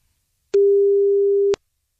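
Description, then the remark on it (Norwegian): A single steady telephone ringback tone sounds for about one second as a Radio 1 show calls a listener, clear, starting and stopping with soft clicks, with silence on either side. “Så kan vi ringe opp neste på lista vår.”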